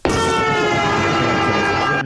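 train passing with horn

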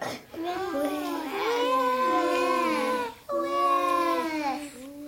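baby crying

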